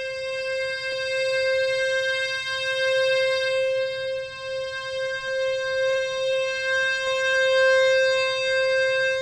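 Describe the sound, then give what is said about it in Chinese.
One steady, reedy accordion note held for the whole clip as a single button is pressed and the bellows are pulled and pushed normally in a demonstration, with faint momentary breaks where the direction changes and a low rumbling hum underneath. “正常的拉开的时候，你只是按一个按键，正常的风箱拉开来跟推的时候会是什么样的情形呢？”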